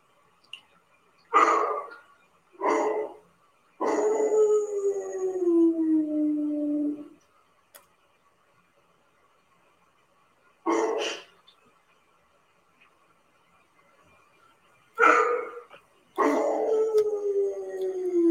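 dog howling and barking

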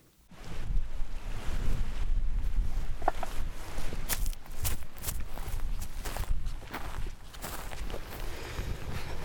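strong wind outdoors

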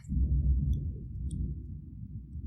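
thunder rumble

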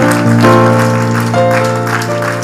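audience hand clapping

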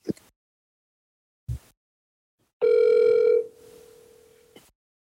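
telephone ringing

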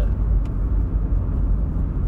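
car driving on highway

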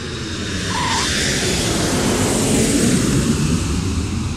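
airplane flying sound effect

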